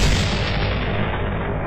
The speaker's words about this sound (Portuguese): Isso foi o tiro número 998, mais conhecido como Jorge.